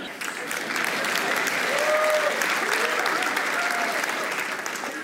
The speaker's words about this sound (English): I know you're clapping